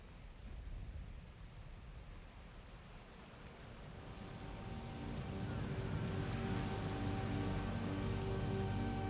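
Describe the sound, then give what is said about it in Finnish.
A steady, far-off wash of sea waves rolls on without pause, growing a little fuller halfway through, with a faint motor-like hum underneath and no voices. “Siinä me katselimme pitkään, maaelävän korvissa Isomeren etäinen hengitys.”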